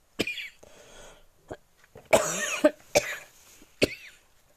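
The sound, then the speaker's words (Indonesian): A grandmother coughs in a series of harsh coughs in uneven bursts, several short hacks with a louder cluster in the middle, with no talking. “maaf oma batuk sedikit”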